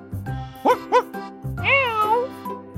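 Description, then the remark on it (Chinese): A cat meows: two short, chirpy mews followed by a longer, drawn-out meow that rises and then slowly falls in pitch, heard over a low, steady background hum. “狗狗来了，猫咪来了，咦，叽叽叽，小老鼠也来了。”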